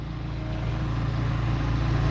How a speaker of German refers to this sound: Jetzt hört mal zu, das ist der Baulärm